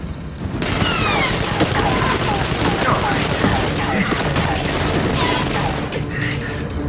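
A dense, sustained burst of gunfire erupts after a brief quiet start, with many overlapping shots from several directions crackling loudly and continuously for several seconds.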